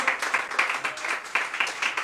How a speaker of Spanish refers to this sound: Así que mito invito, déle ofrenda de palmas al Señor con todo su corazón.